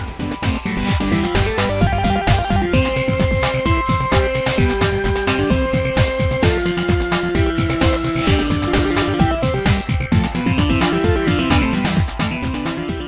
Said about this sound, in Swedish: Och det enda jag hittade var en eh, remix som gjordes till en PC-remake av spelet. Men den är lite sådär, den låter så här.